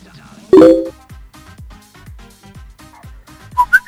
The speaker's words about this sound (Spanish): No, parece un mail, que te llegue un mail.